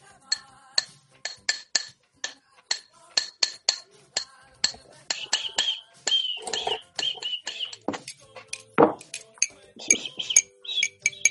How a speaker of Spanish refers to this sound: ¿Qué es esto? Hoy, amigos, ¿qué es estas cacerolas que escucho, amigos?